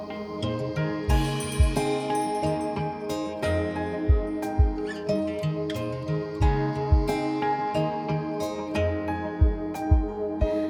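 An instrumental intro to a Japanese pop song: sustained chords and bright, tinkling melodic notes over soft, evenly spaced bass drum thumps, with no singing yet.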